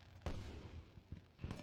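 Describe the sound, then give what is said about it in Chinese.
Spring Festival fireworks going off in three or so deep, booming bursts at irregular intervals, each a sharp crack that rumbles briefly. No one speaks. “在春节的烟花中，天花乱坠。”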